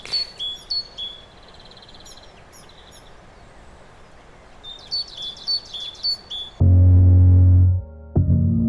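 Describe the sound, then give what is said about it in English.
Birds chirp in quick, high bursts over a steady outdoor hiss for several seconds, then a loud, low, droning call briefly takes over near the end. “Um, the birds have stolen my food.”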